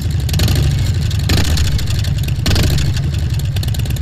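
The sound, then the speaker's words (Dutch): A loud, deep motorcycle engine rumbles steadily through fairly large exhaust pipes, with throaty low-end exhaust tones and slight surges in revs, running continuously without any talking. “Er zit al vrij grote pijpen onder, dus dit is... dit... Zo klinkt hij nu.”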